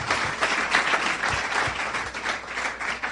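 A crowd applauds steadily for about three seconds, a dense, even wash of many hands clapping at once, fairly loud and close, with no voices standing out.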